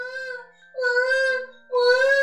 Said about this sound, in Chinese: 远远的就传来了婴儿的啼哭声，柠檬熊循声而去。声音呀，是从猫先生家茅草屋里传出来的。